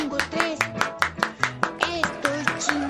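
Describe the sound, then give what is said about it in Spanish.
Rhythmic applause in tribute to the TV clown Ricardo González Cepillín, a minute of applause on the show El Ya Basta. Sharp claps land in an even beat about five times a second, steady and moderately loud, with a voice-like tonal sound running underneath. “A los artistas, como decía Jesús, no los despedimos con un minuto de silencio, los despedimos con un minuto de aplausos, Diva de México.”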